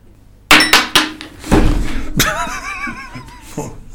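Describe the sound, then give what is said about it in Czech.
A coin tossed for heads or tails is thrown onto a table, landing with a few quick sharp clacks and thuds, then spinning with a bright, wobbling metallic ring that fades out. “Ty jsi na mě hodil tu mincrážu znova.”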